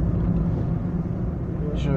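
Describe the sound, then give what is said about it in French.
A heavy, continuous low-frequency engine rumble fills the scene, steady and loud like a big truck rolling by on a busy road with heavy traffic, with a brief brighter hiss near the end. “Waouh, ça c'est du gros camion. Ou ça c'est du petit camion mais blindé.”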